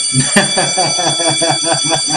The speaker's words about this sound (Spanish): ver que llegaste tarde, ya sonó la campana